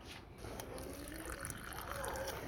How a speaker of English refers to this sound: So when you're adding the hot water, add it. One person is gonna pour the hot water slowly while the other person is mixing.